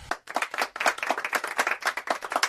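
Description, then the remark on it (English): Hands clapping in a quick, steady run of sharp claps, like a small group applauding, with no talking over it. “Please clap.”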